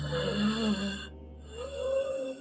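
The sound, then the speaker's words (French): A voice imitates the heavy, labored breathing of a sick man lying in a hospital bed: two loud, rasping breaths, one drawn in and one pushed out, with a wheezy, snoring edge and a short pause between. “Euh, il respire très fort, donc ça a vraiment cette respiration de...”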